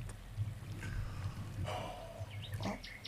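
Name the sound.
flowing stream water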